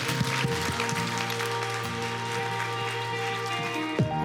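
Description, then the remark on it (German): A church audience in Düsseldorf claps for God during a service, a dense, even wash of hand claps lasting several seconds, while sustained keyboard chords hold underneath. “Komm mal, lass uns Gott mal einen richtig großen Applaus geben.”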